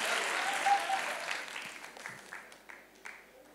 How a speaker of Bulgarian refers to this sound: Всички жени трябваше да пляскат тук в тази проповед